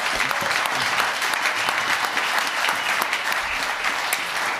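Loud, sustained applause from a large audience, a dense wash of many hands clapping at once that stays steady and roaring throughout, with no voices standing out.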